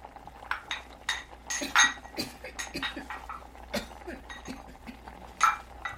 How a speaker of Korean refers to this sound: 그는 마루에 앉은 채로 방에 딸린 작은 부엌에서 아내가 음식을 준비하는 소리를 들었다.